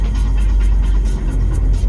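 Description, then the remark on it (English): A car engine rumbles loud with a steady low throb and faint rhythmic pulses riding on top as the car slows for a red light in a city, and no voices over it. “When I feel the car slow, I lunge for the door handle.”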